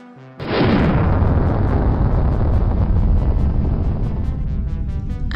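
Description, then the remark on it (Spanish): A rocket launch: after a brief quiet moment, a sudden loud ignition bursts into a deep, continuous roar with crackling rumble that holds steady and powerful for several seconds. “Initiating launch sequence.”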